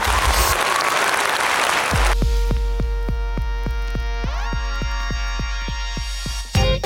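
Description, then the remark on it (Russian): A short, loud burst of clapping applause lasts about two seconds, then gives way to a bright musical jingle with steady, evenly spaced plucked beats. “Аплодисменты Ириному мужу да, и всем включенным в отцовство мужчинам.”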